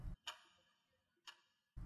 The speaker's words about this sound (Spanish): El tic-tac de un reloj resonaba por todo el interior.